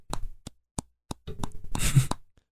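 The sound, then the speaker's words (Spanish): A voice imitates a cat chewing something, with wet mouth clicks and smacks: a few spaced pops, then a busier, noisier burst of smacking before it trails off. Fairly quiet, with no words. “Como que estaba, raspando, como que estaba mascando algo, güey.”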